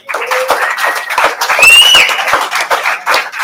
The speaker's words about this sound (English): Thank you for the time today, and uh, appreciate you coming out. Big round of applause for these guys right here.